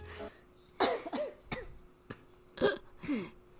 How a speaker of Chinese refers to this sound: 也会很自然的微弱，会有一些咳忽远忽近的咳嗽声